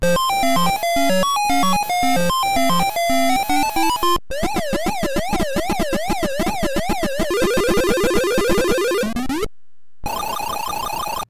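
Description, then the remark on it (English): Sound effects from Pac-Man Collection on the Atari 7800, played through its built-in TIA sound chip: a buzzy, stepping bleep melody, then a rapid warbling siren tone, a rising sweep, a brief silence and a final harsh buzz. “Here are some sounds from Pac Man Collection with the built in Atari 7800 TIA sound.”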